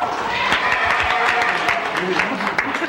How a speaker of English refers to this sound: Now, why are you applauding a Pullman car? there aren't any more Pullman cars.